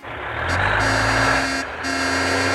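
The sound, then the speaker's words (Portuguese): A garbage truck rumbles by, its heavy engine droning loud and steady with a low humming tone that dips briefly before surging again. “O caminhão do lixo já passou”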